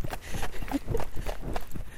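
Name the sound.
running footsteps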